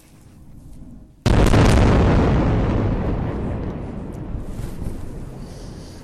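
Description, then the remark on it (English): After a low, quiet hum, a single powerful explosion from an Israeli airstrike on Gaza bursts out suddenly at night, then rolls into a long, rumbling decay that slowly fades over several seconds. No one speaks. “Well, just moments ago, Israel launched another airstrike on Gaza.”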